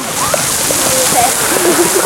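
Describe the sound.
A steady, loud rush of falling water from the cold-water geyser in Andernach, a giant fountain that erupts about every 100 minutes, splashes down continuously as it crashes back to the ground, with faint voices calling out beneath the roar.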